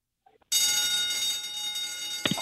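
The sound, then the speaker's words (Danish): A loud school fire alarm bell, pressed by a person, suddenly starts ringing after a brief moment of quiet, a harsh continuous metallic clatter that keeps going without pause. “Der er en brandalarm lige her ved siden af mig. Okay, prøv at trykke på den.”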